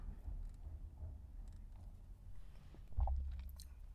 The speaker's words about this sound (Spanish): Pausa para el último trago de café y ya cerrar este finalazo de temporada.